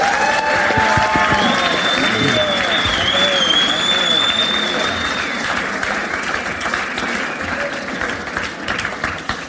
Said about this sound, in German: Nochmals einen großen Applaus für unsere Gäste.